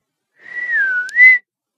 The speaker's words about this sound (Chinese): 祸水吹了个口哨后，拍了拍手，